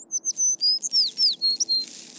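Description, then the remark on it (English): A small bird chirps in a quick run of high, thin notes, some steady and some sweeping downward, clear over a faint low background hum. “It's just a bird.”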